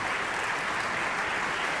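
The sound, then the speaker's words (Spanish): Steady, dense applause from a concert audience in the Teatro Colón hall, honoring conductor Pedro Ignacio Calderón as he walks to the podium: a continuous crackle of many hands clapping at an even, fairly loud level with no voices standing out. “Bravo, maestro, aquí, Aplausos, bien merecidos.”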